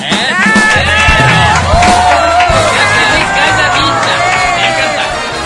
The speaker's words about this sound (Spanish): Y es lo mismo que te decimos a ti, que seas muy, pero muy feliz porque te lo mereces. Estos aplausos son para ti.